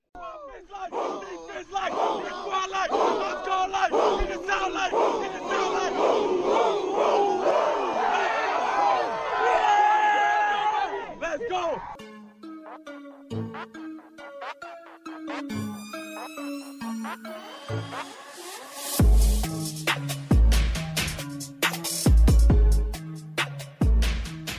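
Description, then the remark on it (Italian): The Palla 2 theme jingle opens with a roaring crowd and a shout, then switches to a bright melodic tune with stepping notes and punchy, loud drum hits toward the end. “Ecco, quando si inizia a parlare di gag visive in un podcast, capisci che sei andato troppo lungo, quindi meglio far cominciare la sigla palla 2.”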